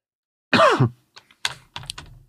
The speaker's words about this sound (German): Und wo ich gerade fast ins Mikrofon gehustet habe, fällt mir noch etwas anderes ein.